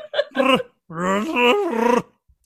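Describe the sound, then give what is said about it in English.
A man imitates a Chewbacca growl with his voice: a short rough burst, then a longer, wavering, throaty yowl that rises and falls in pitch. The sound is loud, with no other talk. “Uh, I don't, I don't know how to, I can't do a bear growl, but I can do a Chewbacca growl.”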